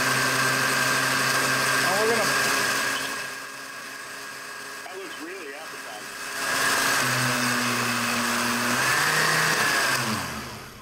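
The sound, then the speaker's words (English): A blender blending poop water runs loudly with a steady, buzzing motor whir, eases to a lower, quieter hum midway, then revs back up to full power before cutting off. Faint voices may sound beneath it. “And we are going to, uh, we're going to go ahead and blend it.”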